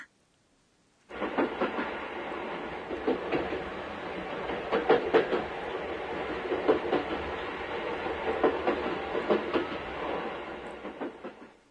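An electric train rumbles steadily along the tracks, fairly loud, with rhythmic clacking of wheels over rail joints throughout after a brief silent start. No one speaks.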